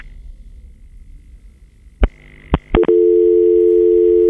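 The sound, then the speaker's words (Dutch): A few sharp clicks and blips as a phone call drops, then a loud, steady telephone dial tone hums on continuously until the end, with no voices present. “En daar ging even de telefoon op.”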